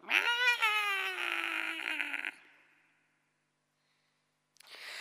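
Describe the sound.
A person imitates the pained meow of a large, fat, black 9-kilogram tomcat whose paws got burnt on a radiator: one loud, drawn-out wailing cry lasting about two seconds and trailing off, followed by silence and a short burst of noise at the end.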